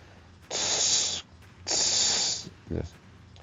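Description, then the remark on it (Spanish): A voice imitates a big company truck or dump truck letting out air or gas: two long, loud hissing bursts of breathy noise, then a short lower snort-like puff. “Los camiones de volteo o camiones grandes de la compañía hacían ese sonido. como si sacaran aire o gas.”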